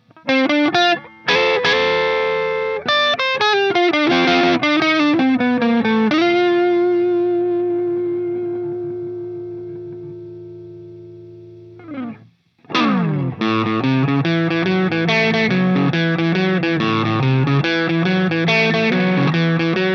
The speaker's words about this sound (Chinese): 那著名的效果器品牌 f o l t o n e 的创始人啊，就说这一款音箱是他三十年来用过最出色的音箱了。好，我们来听一下三十年来最出色的过载音箱 Doctor Z Root 六十六的事儿。